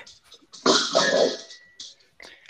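A dog gives a loud, rough growl lasting under a second, trailing into a thin high whimper, with quieter snuffling sounds before and after.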